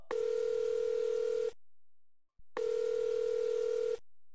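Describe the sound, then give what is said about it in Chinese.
A telephone ringback tone after a number is dialed on a hotel's public telephone: two long, steady buzzing rings, each about a second and a half, separated by a brief silence, with a steady mid-pitched hum. No voices. “再一次返回了服务台，他用酒店里的公共电话机拨通了韩毅留的电话号码。”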